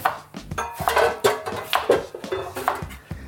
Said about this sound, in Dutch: Ik pak even een hele grote pan. Ja. Juist, Dutch oven style.